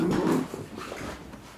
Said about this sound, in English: Okay, there's a slight pause in the conversation because someone came to my office, knocked on the door, had my dog there with me and he started barking like a maniac.